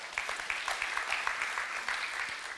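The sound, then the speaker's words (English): An audience claps together, celebrating that 4,710 people have become Christians, in dense, steady applause, many overlapping hand claps forming a bright, continuous crackle that holds at an even, moderate loudness throughout. “Yeah, you can clap.”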